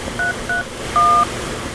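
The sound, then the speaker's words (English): Three touch-tone keypad beeps from a phone, entering a number followed by pound on a resort reservation phone line: two short, evenly spaced presses followed by a longer held tone, clear over a faint background hiss, with no talking. “Please enter your resort reservation number or your 10-digit home phone number followed by pound.”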